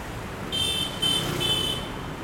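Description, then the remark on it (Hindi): Busy street traffic with a steady road rumble, broken by a series of high, buzzy vehicle horn beeps over about a second and a half, as people wait to cross the street. “यहाँ हमें क्रॉस करना है अब रुको केयरफुल ट्रैफिक”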